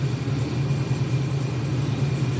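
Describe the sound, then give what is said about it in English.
A truck engine idles inside a hot rod shop, a steady, low rumble with a deep continuous drone and a faint hum above it, and no voices. “Oh, now the truck's in here. That thing's gorgeous.”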